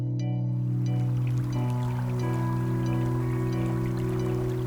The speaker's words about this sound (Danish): Vandet risler stille afsted i Userød Å i Kokkedal.